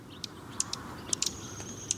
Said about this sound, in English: However, the most attention grabbing aspect of this shy junco is its tail. As the bird darts off, giving a sharp twittering call, it flashes the white outer feathers of its tail.